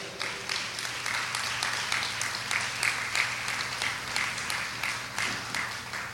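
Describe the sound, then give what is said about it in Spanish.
A church audience applauds for the King of Kings steadily for about six seconds, a dense patter of many hands clapping at once with a low hum underneath and no voices. “¿Cuántos le dan un aplauso al Rey de Reyes?”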